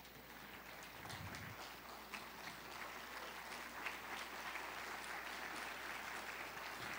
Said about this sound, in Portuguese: Ao você sentar-se, você dá a Deus uma linda salva de palmas.